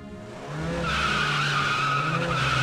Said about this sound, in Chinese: 一阵紧急刹车声，警车都停了下来。